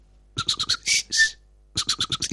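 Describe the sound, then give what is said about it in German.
A person imitates bird chirping with a quick run of short, bright chirps, two longer whistled notes, then another rapid burst of chirps, fairly loud with no talking. “Ey, das ist eine Nachtigall, glaube ich, oder?”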